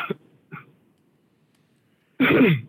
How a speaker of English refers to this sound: sorry about that.